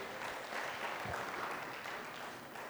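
A small audience claps steadily for a few seconds, a dense patter of many hands blending into an even wash of applause, moderately loud with no talking over it. The clapping is for a participant who helped with a demonstration of a 2 metres 45 height.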